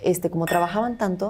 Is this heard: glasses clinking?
yes